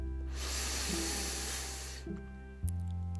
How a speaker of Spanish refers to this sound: y vamos a comenzar a inhalar por la nariz y a exhalar por la boca tres veces de manera muy fuerte. Inhala profundo.